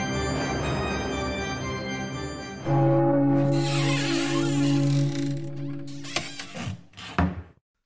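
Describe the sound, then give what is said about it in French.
A heavy confessional door creaks and slides open in one long, loud motion, its groaning drone giving way to scraping and a final thud, with no voices. “Donc, sans plus attendre, je vous invite à venir derrière les portes du confessionnal pour écouter ma confession.”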